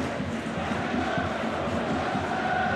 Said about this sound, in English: There were 1,010 Bradford fans. They're getting applauded now.